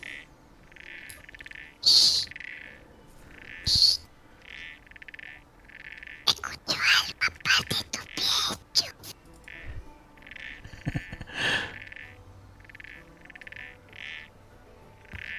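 A chorus of frogs croaks in steady, rhythmic pulses, with several louder, closer calls and a burst of rapid overlapping croaks midway; no one speaks.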